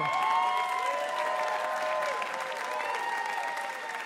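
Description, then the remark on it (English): An audience applauds steadily, a dense wash of clapping that stays loud and even throughout, with a few faint whoops or cheers mixed into the noise. “we would like to give you a Ask Me Another Rubik's Cube and a huge round of applause for being delightful.”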